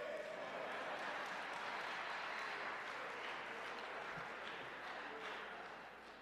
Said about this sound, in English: Don't nobody want to clap for that, huh?